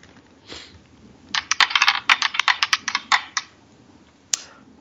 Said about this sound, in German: Ja, schauen wir mal, äh, wenn es mehr als vier ist, wir müssen nochmal würfeln.